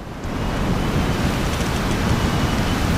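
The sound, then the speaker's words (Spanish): A powerful, continuous roar of gale-force wind tearing through trees, dense and surging like heavy surf, with deep low rumbling and steady loudness throughout, no voices present. “Y el temporal ya es un muro de viento y el mar suena casi, perdón, el bosque suena como un mar embravecido.”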